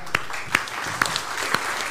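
An audience applauds to honor people who have truly given their lives, a dense wash of clapping with sharper individual claps standing out about every half second. No one speaks over it.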